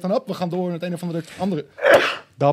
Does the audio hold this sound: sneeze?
yes